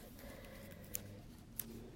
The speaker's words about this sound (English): That was the nail glue that I just dropped.